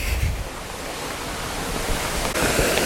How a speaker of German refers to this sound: Und was man hier im Hintergrund hört, ist schon der Wasserfall. Ähm, das ist das große Ziel dieser Tour.